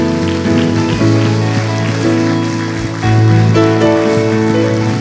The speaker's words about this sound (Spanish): Alguien por favor que levante un aplauso fuerte al Señor.